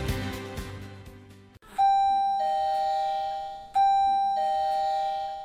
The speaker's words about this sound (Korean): 세상에서 가장 슬픈 벨소리가 울립니다.